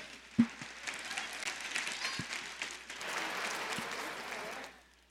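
An audience applauds for about four and a half seconds, a dense wash of many hands clapping that swells slightly midway, then stops abruptly. A few sharper claps stand out at the start.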